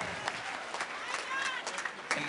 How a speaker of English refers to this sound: Give the Lord a clap offering and worship my God.